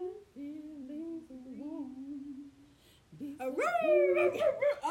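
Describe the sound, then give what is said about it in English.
A human voice mimics a dog, starting with a low sustained whine-like tone, then breaking into a louder run of rising, yelping bark sounds, fairly loud. “I barked. Yes, I did. It was terrible.”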